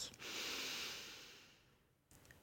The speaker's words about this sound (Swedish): Och vi tar tillsammans ett djupt andetag in, fyller upp hela bröstkorgen med kärlek.